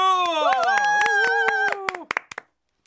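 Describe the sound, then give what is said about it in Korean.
An audience claps together in a steady rhythm at the start of a married couples' game, about a dozen sharp claps in unison beneath a drawn-out voice, ending with a few separate claps that trail off. “자, 다 같이 박수!”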